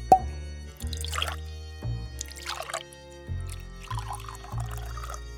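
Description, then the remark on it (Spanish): Homemade sherry is poured into a glass in a few short bursts, trickling and splashing, with a faint clink at the start and a low background tone underneath. “Para romper el hielo, mi marido sirvió más jerez de nuestra casa.”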